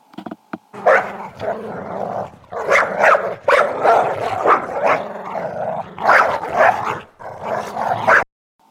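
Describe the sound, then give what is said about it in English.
Wolves bark and growl in a loud stretch of harsh, rumbling snarls broken by short bursts, nearly continuous for several seconds before cutting off abruptly. “Lance and Alistair were twins, who were raised by wolves when their parents ditched them when they were born”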